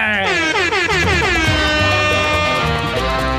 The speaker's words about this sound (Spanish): No puede faltar el autobús saliendo para Choroní. Oye, vale, yo quisiera ir para Choroní.